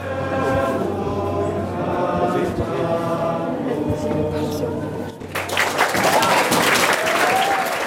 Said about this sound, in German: der Jubel an der Essensausgabe in Sichtweite galt auch ihm.